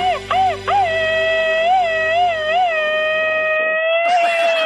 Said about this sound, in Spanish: Tremendo grito ametrallador para usted, jefa.